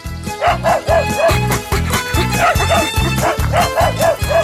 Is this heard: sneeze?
no